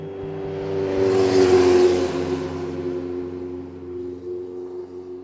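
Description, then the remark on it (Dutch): A motorcycle parked outside revs loudly, its engine swelling to a roaring peak within the first two seconds, then settling into a steady, throbbing idle with a strong low hum. “de motor, nou ja, goed, dat ik erop ging zitten, want hij stond al buiten toen”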